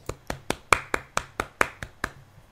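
applause

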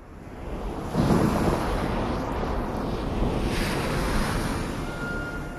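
ocean waves crashing

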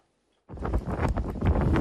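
strong storm wind gusts

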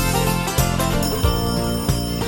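telephone ringing

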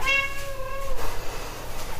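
cat meowing

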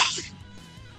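a sneeze

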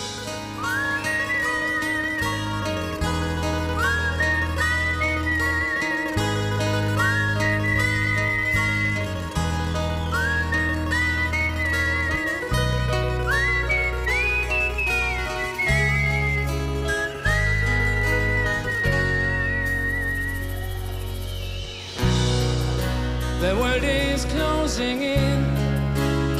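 whistling

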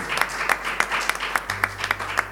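audience applause

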